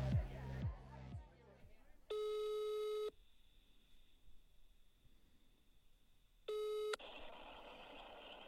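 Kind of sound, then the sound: signal or alarm, phone call ringing tone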